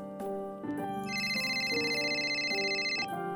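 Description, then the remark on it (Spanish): A cell phone ringtone plays a looping electronic melody of bright, sustained tones, fairly steady in loudness, coming from the other side of a door, with no voices. “No había manera de que alguno no hubiese escuchado el tono que venía del otro lado de la puerta.”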